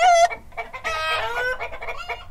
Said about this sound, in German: Ja, bei den Hühnern natürlich, bei den Hennen insbesondere, die legen die ja fleißig.